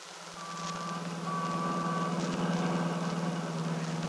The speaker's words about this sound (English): Seems so noisy. All the people, the traffic.